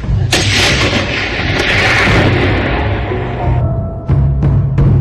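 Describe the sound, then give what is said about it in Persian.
A loud hunting rifle shot, a Brno rifle fired by a hunter at game in the snow-covered Aladağlar mountains of Turkey, cracks early, followed by a long rolling echo that fades over several seconds, then a second sharp shot rings out near the end. No one speaks. “قله هایی که از فراز اونها دریای سیاه و مدیترانه پیداست همیشه پوشیده از برف و جایی مناسب برای استتار شکارچیان و شلیک به سمت سوژه”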